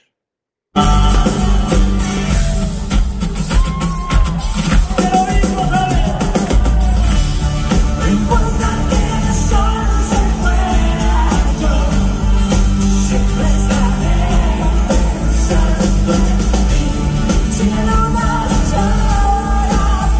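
A fan's video of a live concert at a festival, loud music recorded from the crowd, with the fan singing and shouting along over the band, continuous and slightly distorted throughout.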